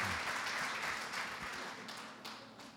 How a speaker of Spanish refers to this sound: Desen un aplauso para ustedes que no están hoy en la playa, que están aquí, que están aquí.